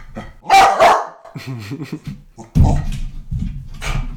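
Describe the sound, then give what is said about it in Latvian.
A dog barks loudly, a quick pair of sharp barks, followed by softer whining and rougher barking noises over the next few seconds. “tev ir, tev ir pārtika virtuvē. Ceru, ka tā nav šokolāde, bet šokolāde tev nogalinās.”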